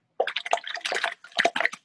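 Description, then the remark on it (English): Irregular splashing and sloshing of water in short wet bursts, with drips and churning between them, as a restrained walking shark thrashes about in shallow water. “Oh, that's it's it's splashing there.”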